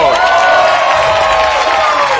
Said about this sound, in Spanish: gracias, gracias, por ese calurosa bienvenida. Esto es Cero en Historia. Aplaudan también esto.